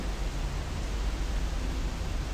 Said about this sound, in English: Um, anyway, hearing rain.